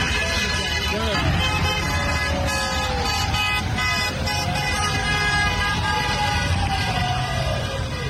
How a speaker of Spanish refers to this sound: Así, la madrugada de hoy, los trabajadores salieron a las calles con pancartas y tocaron los claxons de vehículos para empezar el paro.